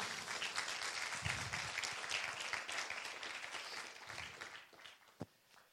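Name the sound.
audience applauding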